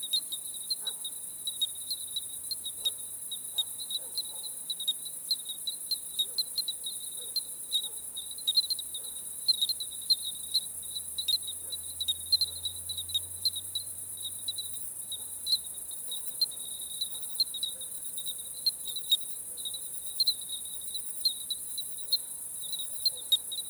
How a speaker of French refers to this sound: Donc j'en reviens à mes grillons clochettes. Alors l'intérêt de cette ambiance euh, ce soir, c'est que les grillons d'Italie ne sont pas encore euh, réveillés, enfin ils ne sont pas encore euh, adultes, donc ils ne forment pas encore ce, fond sonore